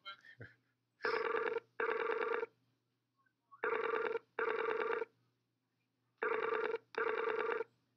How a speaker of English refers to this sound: All right, right now you're on speaker, and I'm calling Nick anyway on, uh, on Skype.